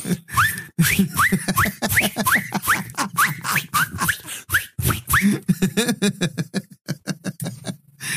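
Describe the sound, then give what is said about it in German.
A voice mimics a string of whistling firework rockets, rapid rising squeals repeated about a dozen times with breathy bursts between them, fairly loud, trailing into choppier puffs and pops at the end. “Sollte jetzt über das ganze Jahr über immer wieder mal einen Heuler hören.”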